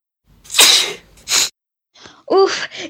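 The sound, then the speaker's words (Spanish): A loud, forceful sneeze bursts out with a sharp inhaled build-up, followed by a brief gasp and a second breathy exhale, all heard alone without talking. “Provoquémosle un gran estornudo a este paciente”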